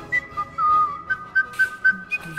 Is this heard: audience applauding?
no